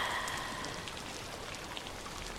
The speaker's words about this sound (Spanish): La lluvia cae sobre tu casa, sobre los árboles, sobre las plantas. Todas las calles del lugar donde vives se llenan de lluvia.